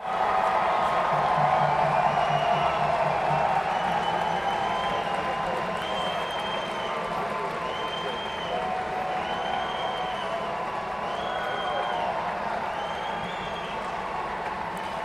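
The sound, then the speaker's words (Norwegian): A stored cheering sound effect: a large crowd cheers and applauds continuously, a dense wash of clapping and shouting voices with a few rising whistles or calls standing out, steady and loud throughout. “Og nå eh, har jeg en sånn eh, Nå må jeg se, har jeg en jubel liggende, hvis jeg er heldig.”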